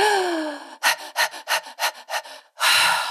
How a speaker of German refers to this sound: Und nach dreimal Hecheln ist die Wehe vorbei.